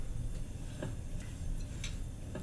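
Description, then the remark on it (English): A chopstick stabbing raw octopus makes a handful of quiet, irregular little clicks and wet taps over a steady low background hum with no talking. “Okay, stabbing it with a chopstick. You hear that?”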